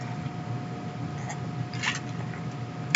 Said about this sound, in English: You get a sip of this whiskey.